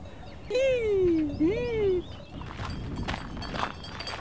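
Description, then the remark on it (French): A person vocally imitates a tit's call: two drawn-out, sliding tones, the first falling, the second rising then dipping, fairly loud, followed by a soft rustling background. “Euh, il faudrait que je fasse le cri de la mésange.”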